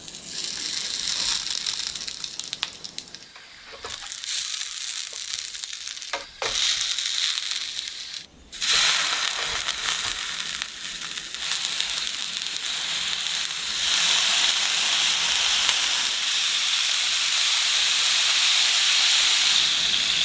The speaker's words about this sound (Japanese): 今朝は鳥つくねのおいしい音色